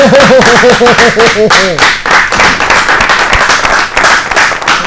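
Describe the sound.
An audience bursts into steady, dense applause welcoming a guest, a tango dancer and teacher, on a tango radio show. The applause carries on loudly through the whole stretch, while a voice calls out with rising and falling tones over the first couple of seconds.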